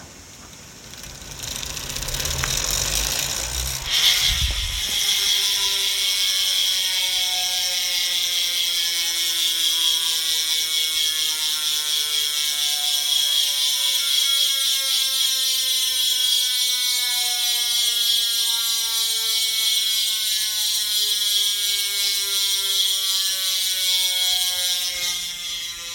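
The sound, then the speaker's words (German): A spun bicycle wheel's freewheel ratchets in a fast, buzzing stream of clicks that gradually slows as the wheel coasts down over about twenty seconds, with no brake rubbing after the brake pads were changed, in the Stura valley, with no talking. “Wie ihr hört, hört ihr kein Schleifen und das Rad dreht sich.”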